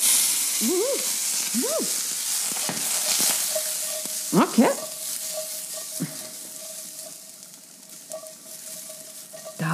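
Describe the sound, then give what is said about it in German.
Kohlrabi sizzles and crackles steadily in a lidded frying pan, a constant hiss with a few brief squeaks early on and a short metallic clatter midway. “Ich höre in der Pfanne, in der Kohlrabi-Pfanne geht es recht ab.”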